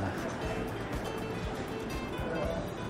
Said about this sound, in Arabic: لما تسمعوا أزيز المواتير تعرفوا اقتراب عربية الأكل وصلنا عند حوت عربات الحلال